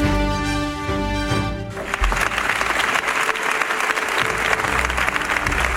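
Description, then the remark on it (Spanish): A short musical phrase with sustained tones gives way to applause from residents of San Roque gathered over a woman's murder: a dense, steady wash of many hands clapping that carries on evenly for several seconds at a strong level. “Son aplausos tristes Rabiosos, solidarios, aplausos de los sanroqueños concentrados ayer por el asesinato machista de María Isabel”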